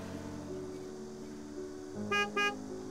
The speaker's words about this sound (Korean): 그것도 잠시 클락션 소리가 크게 나기에 나는 뒤를 돌아보았다. 거기엔 모 병원의 앰뷸런스가 서 있었다.